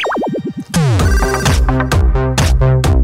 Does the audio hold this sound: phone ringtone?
yes